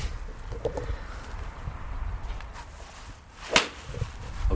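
A golf club whooshes through a swing and strikes a ball with one sharp, crisp crack, heard alone outdoors on a golf course over a low, steady background rumble; the ball flies about 140 to 150 metres.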